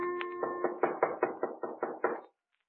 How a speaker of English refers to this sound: It was about 11 o'clock, and we'd started to go to bed, intending to get up as early as possible the next morning when there was a knock on the door.